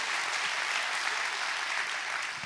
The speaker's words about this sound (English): Clap your hands for that all over the building.